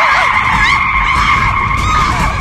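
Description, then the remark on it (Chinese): A Dongfeng Xiaokang car skids on its two right wheels for dozens of meters, with a loud, unbroken high-pitched tire screech that holds steady for a couple of seconds over a low rumbling undertone, with no voices. “尽管莫小鱼是以有备算无备，拼命地向左歪着身体，试图将车体压回到四轮着地的正常状态，但是呢，车体依然是用右边的两个轮子斜着滑行了数十米才落下来。”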